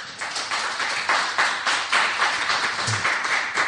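A crowd applauds steadily, many hands clapping in a dense, continuous patter that stays fairly loud and even throughout, with no voices standing out.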